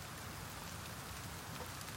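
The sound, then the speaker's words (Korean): Steady rain falls continuously, a dense hiss of drops spattering on a surface, even throughout with no voices present. “갈라진 내 목소리만 빗소리에 묻힐 뿐 아무 대답이 없었다.”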